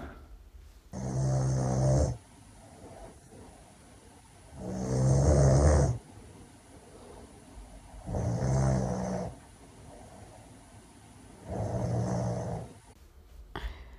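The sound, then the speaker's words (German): Four loud snores from a person asleep in bed, at a slow, steady rhythm, each a rough, rattling inhale lasting about a second, separated by quiet breathing pauses, with no talking. “Ja, ähm, das ist eine Person, die bei uns im Bett schläft.”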